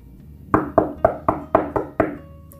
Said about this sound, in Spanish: Y ahí estábamos risueñas. Cuando tocaron la puerta.